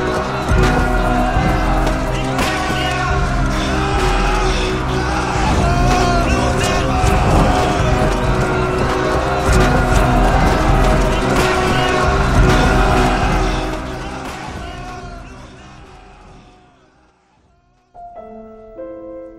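An American army vehicle's engine rumbles loudly and steadily for about thirteen seconds as it arrives, then fades away, with a brief new sound starting near the end. No one speaks.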